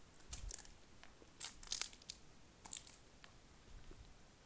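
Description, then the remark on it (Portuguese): Dry leaves crunch underfoot on a veranda in a few irregular bursts, each a brittle crackling rustle, fairly soft, with short quiet gaps between steps and no talking. “Ai, na varanda, tropecei em uma pedra, pisando nas nas folhas, dá para ouvir, né?”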